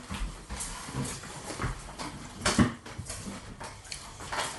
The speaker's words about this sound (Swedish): Då har jag lagt ner grönsakerna i samma kastrull som jag vände upp lagen med.